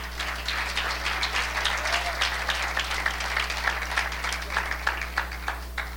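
A church audience applauds the Lord after a sermon, many hands clapping steadily in a dense, continuous wash with sharper individual claps popping out, with a low constant hum underneath and no one speaking.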